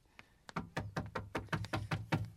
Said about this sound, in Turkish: Baba kapı çalınıyor.